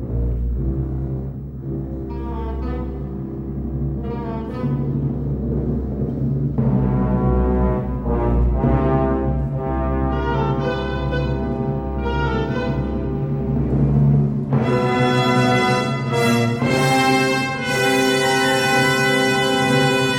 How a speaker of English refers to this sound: In 1997, he brought a touch of that Hammer class to Nosferatu. Have a listen to this excerpt from the overture, which he wrote for the silent classic.